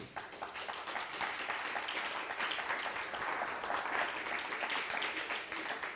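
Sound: audience applause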